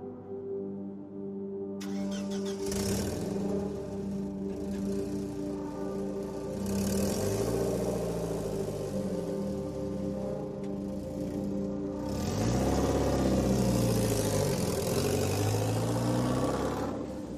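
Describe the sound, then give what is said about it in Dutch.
A car engine runs steadily, with a strong low drone and harmonics that rise and fall as it revs, growing louder toward the end. No one speaks. “dat is wat ik bedoel kan dat we zo met de auto zijn gevlucht.”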